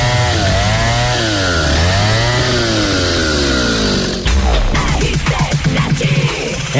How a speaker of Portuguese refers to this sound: Sua motosserra ideal está aqui.